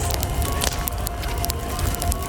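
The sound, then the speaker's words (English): A steady crackle of a Halloween bonfire, with sharp pops and snaps scattered over a low, continuous rumble of burning wood, moderately loud, no voices. “Welcome, weirdos, to the Halloween bonfire. Grab a seat by the fire, toast marshmallow”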